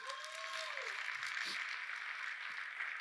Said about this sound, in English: Yeah, come on. You can give the Lord a round of applause. He's good.